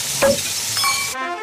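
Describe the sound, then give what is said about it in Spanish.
A large bone-in steak (chuletón) sizzles loudly in a hot pan, a steady crackling hiss with a few sharper pops, then cuts off abruptly into a brief faint tone. “Cocinar una hamburguesa en una casa que ha terminado de pagar su hipoteca suena así.”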